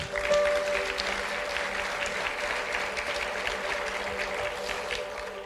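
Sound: audience applauding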